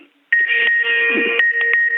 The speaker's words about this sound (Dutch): sorry, gaat nou telefoon.